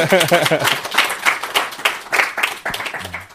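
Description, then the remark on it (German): A few people clap as a goodbye in a quick, uneven burst of sharp claps lasting a few seconds, mixed with voices calling out and talking over the applause. “Wollt ihr nochmal Tschüss sagen? Nochmal klatschen oder so?”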